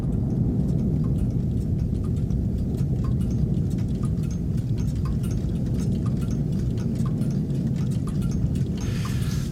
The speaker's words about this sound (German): nur um dann vom Ticken der Uhr beendet zu werden, das in … mündet